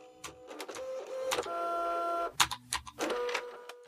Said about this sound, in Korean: 경찰서에는 파티션 사이로 자판치는 소리만 간간히 들려왔다.